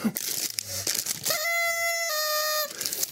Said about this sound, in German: Die habe ich heute in einer uralten Karnevalsverkleidung gefunden. Das ist, ist ein, ein, Schatz, den ich, den ich da gehoben habe. Der funktioniert noch. Normalerweise gehen die ja sofort kaputt, diese Tröten.